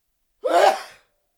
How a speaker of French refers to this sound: et, après avoir résisté un bon moment, n'en pouvant finalement plus, il laissa échapper un énorme et sonore éternuement.